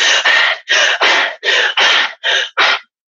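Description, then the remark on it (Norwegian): A voice imitates the heavy, rapid panting of joggers: about eight loud, breathy huffs in a quick, uneven rhythm, each a short burst of rushing air with brief gaps, no speech. “og så tenkte jeg hvis jeg skulle ha lyttet til hva den pusten betyr, så er det et jaget eller skadet dyr jeg mm. hører.”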